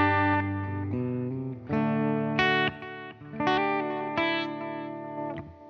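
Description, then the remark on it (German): An electric guitar on a clean setting played through a compressor, a boost and delay, with the chorus switched off, sounding bright and sustained with strong harmonics; a few chords ring out in phrases that swell and decay, with no talking. “ja jetzt Clean, spielen wir jetzt, und dann machen wir ruhig auch wieder hier den Kompressor an und machen mal hier den Boost an.”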